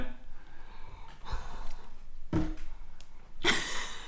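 Close, airy breaths right up against the microphone, a few soft puffs followed by two sharper, louder bursts of breath near the end, with no talking.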